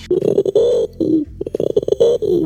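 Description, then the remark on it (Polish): A person imitates a pigeon's cooing, meant as a pigeon that has just watched the film Ptakodemia 2, with low, throaty, warbling hoots in several rolling bursts, fairly loud, with short pauses between phrases. “To był mój gołąb, e, to jest gotowy gołąb.”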